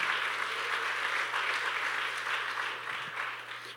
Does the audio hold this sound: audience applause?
yes